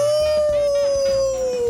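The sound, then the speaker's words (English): A man imitates a wolf howl, one long, steady, loud note that slowly sinks in pitch across the whole stretch, with a soft rumbling thump underneath. “he's slowly transforming into a werewolf.”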